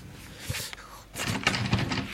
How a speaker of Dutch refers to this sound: Ik krijg die deur niet open.